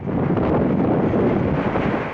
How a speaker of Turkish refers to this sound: Balıkesir'e bağlı Ayvalık ve Burhaniye'de fırtına şiddetliydi. Ağaçlar devrildi. Marinada bağlı tekneler hasar aldı.